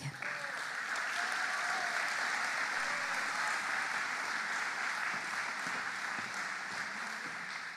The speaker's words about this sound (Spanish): A continuación, queremos dejarles el saludo de bienvenida de nuestra querida presidenta nacional de nuestra agrupación Cantoras de Chile. Les pedimos un aplauso para ella.